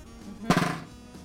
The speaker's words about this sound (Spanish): ¿Por qué, no rebota cuando le hago así? Porque tiene que presionar la baqueta contra el parche.